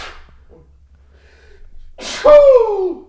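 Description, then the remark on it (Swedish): A single loud sneeze bursts out near the end, a sharp breathy intake followed by an explosive burst, after a couple of seconds of quiet with faint hum. “Och jag säger on the nose, on the nose, on the nose, men out of your nose kom det där.”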